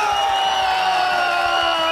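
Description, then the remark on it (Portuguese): A steady, dense wash of crowd applause mixed with cheering and a few whoops, holding at an even, fairly loud level for about two seconds with no speech. “Os aplausos no fundo.”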